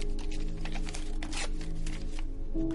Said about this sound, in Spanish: Sentado a la mesa coge una cuartilla y escribe. Se detiene. Deja el bolígrafo y parte el papel.